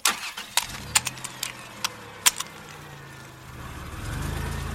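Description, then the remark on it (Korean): A few sharp clicks and knocks, then the engine of a small red car turns over and settles into a low idle hum before revving louder as the car pulls away. “그녀가 차를 출발시키자 갑자기 엄청난 긴장감이 느껴지기 시작했다.”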